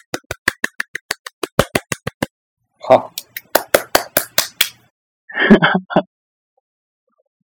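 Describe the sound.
A short burst of hand clapping, a quick, steady run of sharp claps that pauses for a brief spoken word, resumes for a second round, then gives way to talk.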